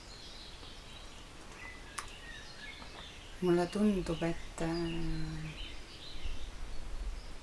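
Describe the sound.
Faint birdsong chirps and twitters throughout, a soft outdoor backdrop, while a man speaks briefly in the foreground partway through.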